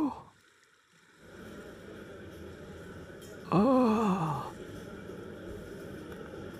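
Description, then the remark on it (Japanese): Steady rushing sea noise, like a rough sea with an arriving ship churning, fills the scene after a brief quiet start. Midway a voice lets out a short, loud groaning gasp over it. “海の方が騒がしいそうか船が来たのだな”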